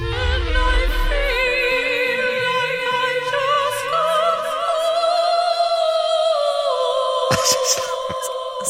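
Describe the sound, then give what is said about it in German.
A woman sings in a high, operetta-style voice in a remix of a song, holding a long vibrato-laden note that climbs in pitch over a full musical backing, with a brief percussive flourish near the end. “Und da muss sie sogar ihr, wie soll ich sagen, ihre Operettenstimme auspacken.”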